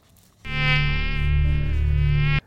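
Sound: mosquito buzzing in flight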